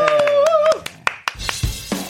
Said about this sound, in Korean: 메들리 박수로 청해 듣겠습니다. 네.